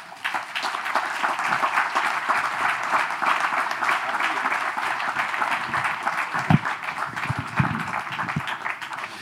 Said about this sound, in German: Insofern zum letzten Mal im Salon zur letzten Schönheit. Äh, an dieser Stelle erstmal bitte noch einen Applaus für unsere großartigen Schauspieler, die jeden Abend Not und Spiele aufgeführt haben, würdig getragen haben.